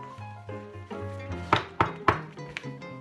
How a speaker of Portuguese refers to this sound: Quem será que está a bater à porta?